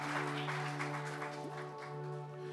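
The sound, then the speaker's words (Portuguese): A church audience applauds steadily during a service, a dense wash of clapping from many hands held at an even level, with a sustained keyboard tone humming underneath throughout. “Dê uma salva de palmas para ele, ele está aqui. Mais forte para ele.”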